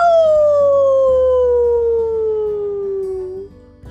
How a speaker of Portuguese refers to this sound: Se um uivo horripilante você ouvir, Pode ser o lobisomem rondando por aí.